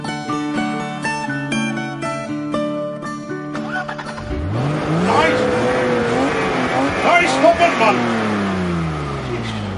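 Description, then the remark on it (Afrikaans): After a few seconds of steady tonal notes, a car engine is revved repeatedly by backyard mechanics, roaring loudly, its pitch climbing and falling with each burst. “met julle backyard mechanics, hoor, oh, die karre so reg. As jy asof die ding vir jou gaan vertel wat verkeerd is as jy hom so martel nie.”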